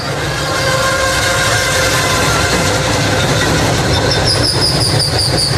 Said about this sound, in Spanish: Parece que oye como unas señales de alerta, que el tren empieza a hacer como maniobras extrañas